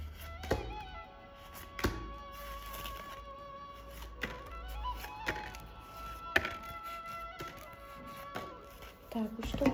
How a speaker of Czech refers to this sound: Já si toho upřímně moc vážím a já už se dívám na vaši fotku, míchám u toho karty a my se spolu podíváme, eh, co nám Tarot poví o vás dvou.